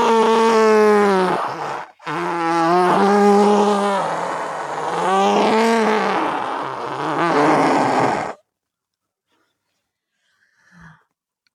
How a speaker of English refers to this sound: Alexa can play funny fart noises